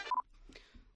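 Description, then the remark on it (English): A single short electronic beep from a cell phone rings out near the start as the call is switched to speakerphone, followed by faint, muffled rustling and low murmuring sounds. “Well, I'm going to put you on speaker.”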